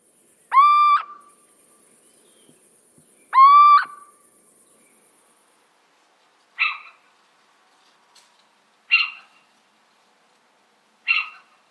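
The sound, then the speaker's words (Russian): Little owl song: two drawn-out, rising plaintive hoots followed by three shorter, harsher yelping calls, spaced a couple of seconds apart against a quiet background. “Домовый Сыч – один из самых классных певцов среди сов. У него очень разнообразное пение.”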